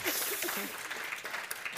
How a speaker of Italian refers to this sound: Buongiorno, ci siamo tutti, fateci sentire un applauso, almeno vediamo, ci svegliamo un attimo.